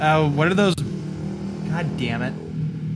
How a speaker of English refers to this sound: What is that noise? Sorry about that. That's that was a motorcycle driving uh, in the background.